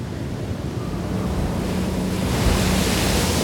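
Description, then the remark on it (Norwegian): Heavy storm surf churns without pause on a fjord across from the island of Smøla during a full storm with snow falling, a dense roar of crashing waves mixed with buffeting wind that swells slightly louder partway through. No voices, just the steady rush of rough sea and gusts. “Kapteinen ser ingen annen løsning enn å slenge ut ankeret sjøl om det er full storm.”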